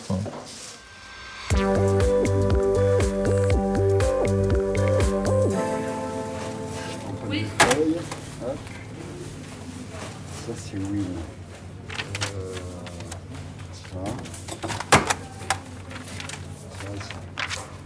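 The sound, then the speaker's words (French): A rubber stamp thumps down on paper receipts for unsold goods donated by shops, again and again in an irregular rhythm, crisp, over a steady humming background with faint voices. “Ce que vous entendez là, c'est Jafar qui tamponne les reçus des invendus donnés par les magasins.”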